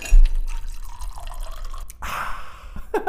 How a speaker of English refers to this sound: pour me another one.